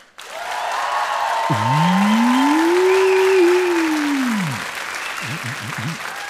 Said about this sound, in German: einen absoluten Ausflip-Applaus von euch. Auf drei einmal komplett ausrasten. Eins, zwei, drei.